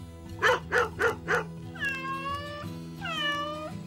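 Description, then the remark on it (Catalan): Four quick, evenly spaced dog barks, then two drawn-out cat meows that rise and fall, all over a faint steady hum with no one talking. “Si tens un gat, posa-li xip. Si tens gos, posa-li xip i placa.”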